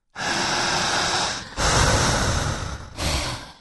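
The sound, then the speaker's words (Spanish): Forceful, deep breaths during a breathing exercise, with three long, noisy airflow bursts in a row, each one starting sharply as air is pulled in hard and roughly, with no talking. “Inhalar y jalar.”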